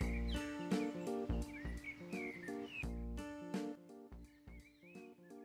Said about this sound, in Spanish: Estoy en el patio de mi casa, entonces favor omitir los pajaritos que suenan en el fondo.